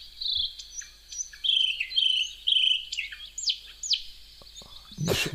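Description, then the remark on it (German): Birds chirp and twitter busily in the empty Di Stefano football stadium during a professional home game, with many short bright calls overlapping one another; no voices, just the steady chatter of songbirds ending in a brief thump. “Warum zirpen und zwitschern denn da die Vögel?”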